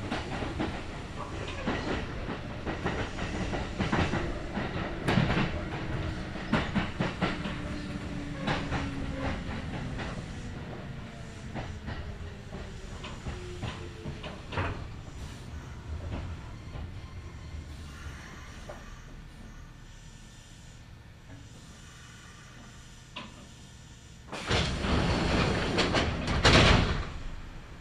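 A Kintetsu Nagoya Line local train, running from Shiohama to Shiroko, rolls along the rails, wheels clicking rhythmically while a falling whine sweeps down as it slows, then a quiet stretch before a loud burst of clattering and mechanical noise at the end.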